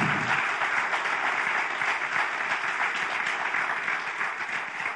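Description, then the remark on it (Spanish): Steady applause from a crowd fills the whole five seconds, a dense, even wash of many hands clapping at once with no voices on top, easing off slightly toward the end. “Si este es usted, denle un aplauso.”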